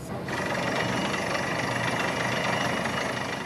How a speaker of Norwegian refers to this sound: En borerigg hamrer seg ned i grunnen ved et nytt kontorbygg på Mariero i Stavanger. Seks slike hull skal bores 250 meter ned i bakken for å hente ut miljøvennlig energi til bl.a. oppvarming av kontorene.